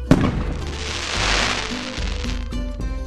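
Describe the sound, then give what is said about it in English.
A firework bursts with a sharp bang, followed by a sustained bright hissing and sizzling that fades into a few crackling pops near the end. “They've also used aluminum or iron flakes to make fireworks hiss and sizzle.”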